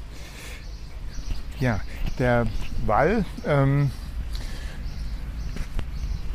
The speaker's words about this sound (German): der noch ja voll mit Autos ist. Man hört sie auch im Hintergrund.